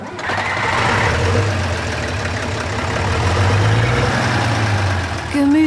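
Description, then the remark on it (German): The engine of a vintage 1950s bus runs steadily and loudly on a trip through a World Heritage valley, a rough, rattling low drone with a mechanical clatter that holds for several seconds without pause. “Und der nostalgische Bus aus den 50ern zieht vielerorts bewundernde Blicke auf sich, Passanten winken uns spontan zu”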